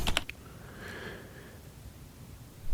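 A quick burst of typewriter keystrokes clacks at the very start, then gives way to a soft, brief whirring tone over a low, steady rumble. No one speaks.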